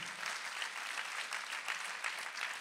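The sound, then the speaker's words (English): A crowd claps together to show they are grateful, a steady, dense wash of applause with many overlapping hand claps and small surges of intensity throughout, and no voices heard over it. “Come on, clap today if you're grateful.”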